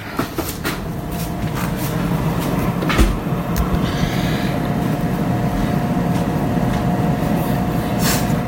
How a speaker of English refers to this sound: All right, you can hear the fryer.